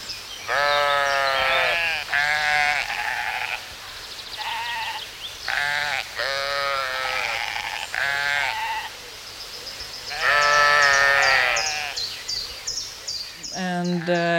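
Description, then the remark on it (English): Sheep bleat repeatedly and loudly, a string of wavering, nasal calls of varying length with short pauses between them, some overlapping, and no talking. “They're like domestic animals, um, like sheep”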